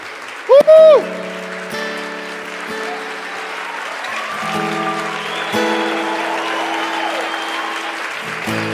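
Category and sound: crowd, audience applause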